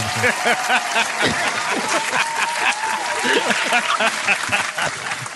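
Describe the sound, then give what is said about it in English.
Sustained applause from a sizable crowd, a dense wash of clapping that stays steady and fairly loud throughout, with scattered cheers and voices mixed into the noise. “Applaud this man he said it was about the kids, man.”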